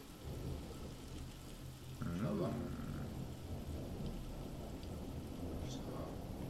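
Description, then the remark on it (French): New Year's Eve fireworks rumble and crackle continuously, with a louder burst and a brief whistling streak partway through, and a single short murmur from a person is heard. “Ah, des feux d'artifice Des feux d'artifice.”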